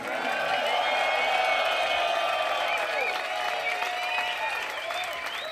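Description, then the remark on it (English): A large crowd at a concert in Copenhagen applauds steadily, the clapping dense and sustained throughout, with shouts and whoops of cheering rising above it, loud, continuing without a break. “Make some noise”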